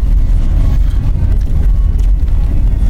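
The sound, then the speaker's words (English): A four-wheel-drive car drives along a road in sudden heavy snow, its low engine and tyre rumble loud and continuous, with a faint crunchy, gritty texture over the top and no voices. “If you want to keep driving in this, it's suddenly exceedingly snowy, but, done. we have a four wheel drive car that, that now notifies us apparently when it's slippery.”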